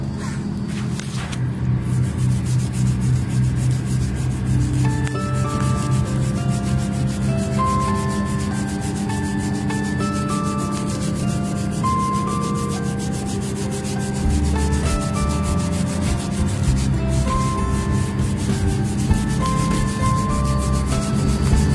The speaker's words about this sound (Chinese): 好了，大家听一下就行了。我要继续刷珠子了，然后给大家一个节奏，大家能伴着这个节奏睡得更好。